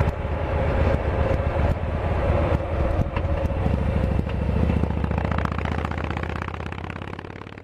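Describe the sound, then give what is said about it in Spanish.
A motorcycle with a sidecar: its engine rumbles loudly and steadily, the throbbing growl holding for several seconds before easing slightly toward the end, with no voices present. “La primera parada sonora en esta ruta visceral en moto con Sidecar”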